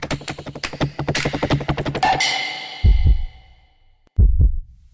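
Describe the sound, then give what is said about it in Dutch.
Deep heartbeat thumps, each a quick double lub-dub, sounding twice with a pause between, following a burst of rapid clicking and a fading ringing tone. “Hoor je dat? Dat is je hart.”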